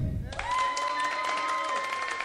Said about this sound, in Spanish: Aplausos para Quique.